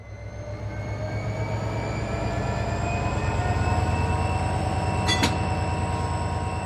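A train rumbles steadily along the rails, its low, rhythmic wheel clatter filling the sound with a droning hum, and a brief metallic squeal or clank rises near the end. No one speaks.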